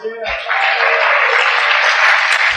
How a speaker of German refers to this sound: Applaus.